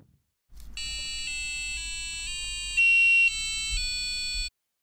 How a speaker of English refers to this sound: But get this electronic wind chime. The wind blows, bends the ribbon, which creates a charge sensed by the ItsyBitsy board, which in turn passes electricity to a, you guessed it, piezo buzzer, which plays a lovely chime.